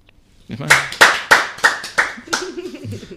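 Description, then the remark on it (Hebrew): About six sharp hand claps in a steady, even rhythm, fairly loud, with a low voice murmuring or humming underneath and continuing briefly after the last clap. “כפיים.”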